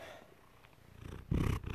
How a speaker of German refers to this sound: Naja, der schnurrt gerade nur. Hm, ja, du bist ein ganz braver.